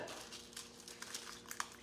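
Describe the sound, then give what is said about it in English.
Faint dog sounds: steady snuffling and sniffing with a few short, sharp yelps or barks scattered through, quiet, and no talking. “He's, he's been feeding these dogs for years.”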